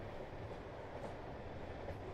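A steady, close train rumble fills the whole moment, a dense low roar with faint rhythmic clatter and no change in loudness. No one speaks.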